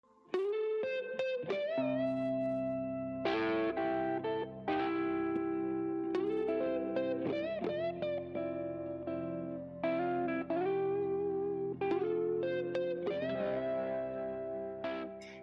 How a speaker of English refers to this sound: I like this version. It's got no drum beat, so you can actually, actually hear the guitar.